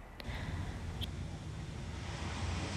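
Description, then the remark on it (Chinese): Soft, steady rush of sea waves washing onto a beach, a continuous hiss with a low rumbling undertone and no clear breaks, plus a couple of faint brief clicks. No one speaks. “海浪打击在沙滩上，再退回海里面。”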